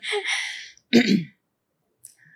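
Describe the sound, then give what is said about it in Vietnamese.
A breathy rush of air, then a short, forceful throat clearing with a rough, low rasp before singing, followed by quiet and a couple of faint small noises. “um, để hắng giọng”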